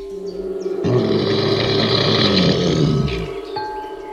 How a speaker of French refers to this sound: Elle se met à crier et c'est un grognement d'ours qui fait trembler les arbres.